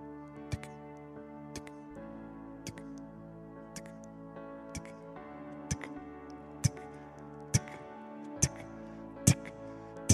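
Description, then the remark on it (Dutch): A watch ticks steadily, sharp clicks roughly once a second that grow slightly louder toward the end, over a soft, sustained tonal hum in the background. “En ze gaat naar het geluid toe en ze vindt het horloge.”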